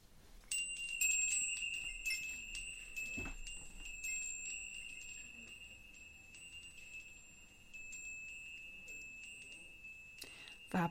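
Small bells hanging from an office ceiling jingle after being touched by an outstretched arm, leaving a steady, shimmering ring that lingers for several seconds, with scattered light taps and clinks. Moderately quiet, with no one talking.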